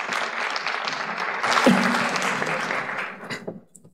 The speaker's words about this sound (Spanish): Un aplauso para ellos.